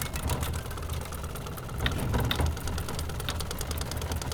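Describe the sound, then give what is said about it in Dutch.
Rapid, steady clattering of a piece of cardboard, fixed with a clothespin, flicking against the turning spokes of a bicycle, a buzzy motor-like rattle that holds a constant pace, with a slightly louder swell partway through. “Mijn vader deed vroeger al een kartonnetje met een wasknijper aan de spaken van zijn fiets.”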